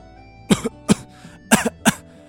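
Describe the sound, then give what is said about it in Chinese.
Four harsh, loud coughs from someone who has choked on a mouthful of smoke burst out in two quick pairs, each a raspy, throaty bark, with short gaps between them and no talking. “他呛了一口烟进嗓子，咳嗽不止。”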